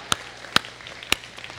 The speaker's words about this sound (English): Um, oh, look at oh oh we're just we're clapping. We're in a clapping mood today. I like that. Let's I, th- I say we clap for everything today.